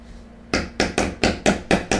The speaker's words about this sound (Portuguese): Ó, vocês desculpem que a gente está em obra hoje. Mostra aí seu martelo. Pra gente consertar. Então vai ter uns barulhos de obra hoje, tá?